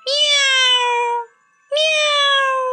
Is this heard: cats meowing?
yes